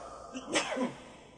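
A single sharp sneeze from a person, a quick breathy intake followed by an explosive burst, with no talking around it.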